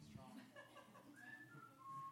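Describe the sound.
A person whistles a short, wavering tune of clear sliding notes, ending on a sustained pitch, with a faint murmur of voice beneath.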